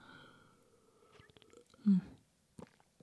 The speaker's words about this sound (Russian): Немножко кофейка, кофе, кофеечка, глотну.